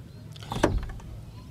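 A father's car pulls into the home driveway, its low engine rumble steady throughout, with a brief mechanical whir and scrape rising sharply midway before settling back to a quiet idle.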